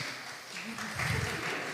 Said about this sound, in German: Wofür war jetzt genau der Applaus?